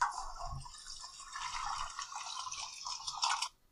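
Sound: toilet flushing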